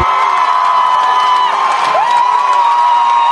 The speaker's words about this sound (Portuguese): Muito bem, palmas aí.